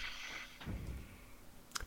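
A small metal ball springs out of its recess as a cube loudspeaker is brought near and snaps against the loudspeaker's magnet with a sharp click near the end, after a softer knock earlier. Faint background hiss, no voices.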